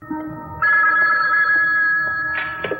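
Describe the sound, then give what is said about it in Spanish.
A steady electronic telephone ring sounds clearly, a sustained bright tone that swells after a brief start and holds for a few seconds without any talking. “Como ocurriera en Trilogía del Terror, y que ya hemos evocado en el programa que dedicamos a Matheson, el teléfono obra como excelente herramienta narrativa para exponer debilidades y vulnerabilidades de los personajes.”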